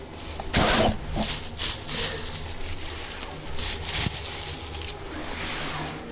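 Coarse sawdust being scooped in a compost toilet, with several rough, scraping rustles and a dull knock or two, fairly loud, with no one speaking.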